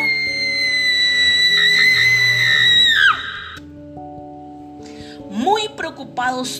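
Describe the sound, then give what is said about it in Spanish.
A terrifying, piercing scream holds a shrill high pitch for about three seconds, then sharply drops off, over steady background music; a few short, wavering cries follow. “Cuando Ana dijo tango, se escuchó un grito tan espantoso”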